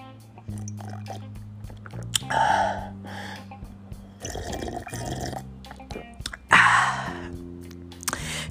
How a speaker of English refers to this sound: Let me sip on a little bit of this coconut water.